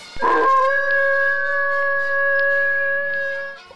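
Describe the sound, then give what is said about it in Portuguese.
A single long wolf howl, rising sharply at the start and then holding a steady, loud tone for several seconds before fading out. It sounds clear, with no voices. “O lobo grande solta um uivo.”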